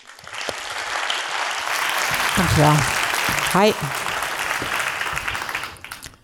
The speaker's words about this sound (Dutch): Mag u applaus voor ….